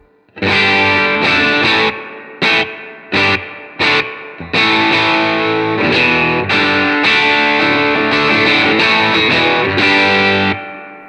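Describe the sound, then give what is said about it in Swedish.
A heavily overdriven electric guitar played through a preamp with the gain turned up plays loud chords and short stabs, with choppy breaks early on before settling into sustained, gritty strumming that cuts off near the end. “Och mer gain.”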